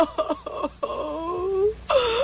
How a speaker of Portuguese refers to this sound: Ei, mulher, por que está chorando?